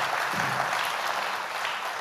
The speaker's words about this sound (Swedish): Oh, stor applåd